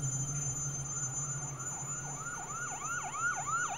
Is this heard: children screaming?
no